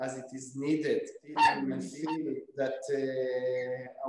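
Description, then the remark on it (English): A small female toy poodle barks and yips in short, sharp bursts in the background, sounding under and between a person's steady, continuous talking. “Sorry, you can hear my dog in the background. She's an opinionated little toy poodle.”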